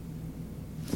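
A muffled 12-week-old fetal heartbeat plays through giant speakers, a low, throbbing whoosh with a quick pulse, heard alone with no talking over it.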